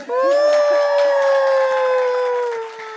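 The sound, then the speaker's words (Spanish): A live audience cheers, led by a single loud, sustained high whoop that holds for about three seconds and slowly drops in pitch, over a faint wash of crowd noise. “Otro fuerte aplauso para mí”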